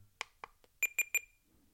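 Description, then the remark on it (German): An audio recorder beeps three times in quick, even succession after a couple of soft clicks, the short electronic tones close and clear with no one talking. “Dann piepst es dreimal”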